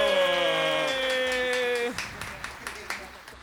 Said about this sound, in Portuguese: receba com muito aplauso